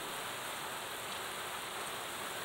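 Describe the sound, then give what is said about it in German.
Steady rain pattering on assorted surfaces, a dense, even hiss of countless drops with fine crackling detail and no pauses, heard alone without any voices. “Vielheit der auftreffenden Tropfen auf allen möglichen Materialien erzeugen eine unvorstellbare Varianz.”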